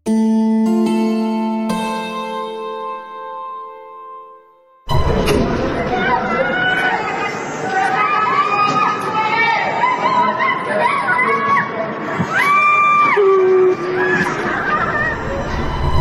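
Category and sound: crowd, residents screaming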